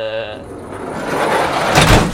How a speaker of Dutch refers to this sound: is ook een vrij eh, rumoerige deur altijd. Als ik ooit buren heb, die vindt het ook niet leuk als je dan s'avonds nog en in de bus gaat, omdat die deur iedereen wakker maakt.